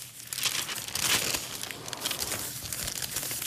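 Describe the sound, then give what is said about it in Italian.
Continuous rustling and crinkling of newspaper pages being turned and handled, with bursts of crisp paper noise over a few seconds and no voices. “Scusate, ma gira da pagina 1 e devo”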